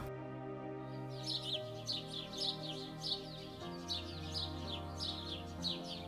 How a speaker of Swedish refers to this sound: Hör du fåglarna?